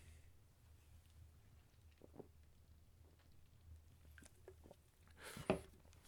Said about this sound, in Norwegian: Nå skal jeg bare ta meg litt da. slurk.